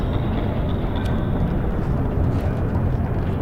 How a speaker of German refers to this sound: Der Aufzug fährt nach unten und bleibt jetzt stehen. Erdgeschoss.